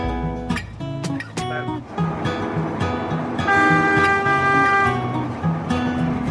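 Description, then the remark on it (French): An autoferro, a bus adapted to run on rails, rumbles steadily along in Ecuador while its horn honks repeatedly in loud, sustained tonal blasts, with sharp clanks and knocks from the running gear mixed in. “Et il est dingue cet engin. Alors qu'est-ce que c'est C'est un, c'est un bus, un camion, les deux En fait, c'est un autoferro euh, c'est un bus qui a été adapté.”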